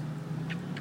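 A steady low rumble of car engines idles and passes in a car park at Westfield in Derby, with a couple of faint brief hisses above the hum and no talking.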